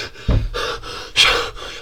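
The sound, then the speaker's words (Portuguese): Heavy, ragged panting: about five harsh, breathy gasps in quick succession, with a louder, strained intake near the middle, like someone struggling to catch their breath. No talking. “Pá, estou a respirar mal!”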